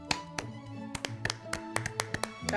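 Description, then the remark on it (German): Scattered hand claps at the end of a reading of a play, roughly ten sharp, irregular smacks, ring out over a steady low humming tone, ending in a louder burst of clapping. “gewogene Hände, man soll klatschen. Ja. Klatsch, klatsch, klatsch.”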